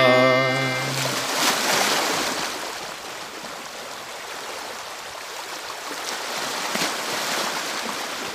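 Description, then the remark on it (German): Water laps and splashes steadily around a canoe on the Alster, a soft continuous wash after a brief musical tone fades out at the start. “Ja, mit meinem Kasperstadtkanu auf der Alster.”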